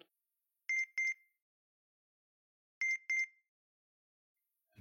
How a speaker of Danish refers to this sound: Hvad er det, der bipper, tænker Give og går efter lyden.